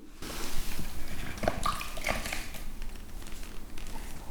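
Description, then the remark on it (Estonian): Excess liquid porcelain slip being dabbed out of the nose area of a plaster mold, a steady run of soft wet squelches and sloshy blots with a few brief drips, with no voices. “muidu on niimoodi, et igal pool see savimass peaks olema ühtlane, aga hetkel valgub see portselan siis üleliigselt nina piirkonda no nii, tupsutame nina tühjaks, et siis saame edasi rääkida”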